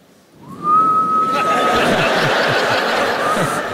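A man's feeble attempt at a loud dad whistle: a thin whistle slides up and holds a steady note for about a second, sounding more like a weak peep than a loud whistle, while a crowd bursts into sustained laughter.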